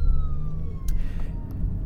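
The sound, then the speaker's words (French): An ambulance siren wails with a slowly falling tone over the steady low rumble of street traffic, loud throughout. “Et tout simplement, attends, je vais m'éloigner un petit peu de cette ambulance là qu'on n'entend plus.”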